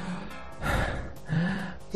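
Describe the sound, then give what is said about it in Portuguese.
A voice imitates heavy, out-of-breath panting: two or three loud, breathy gasps in quick succession, with no words spoken. “Ultra mega tá ofegante.”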